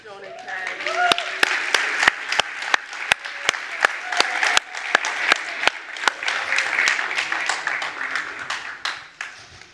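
A room full of people applauds warmly, a dense wash of clapping with a few sharp, close individual claps standing out, sustained for several seconds before tapering off.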